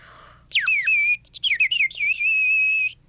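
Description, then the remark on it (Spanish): A whistle is blown, loud and shrill: a swooping first blast, a few quick warbling toots, then one long steady tone before it stops. “te presto mi silbato, pero lo cuidas mucho.”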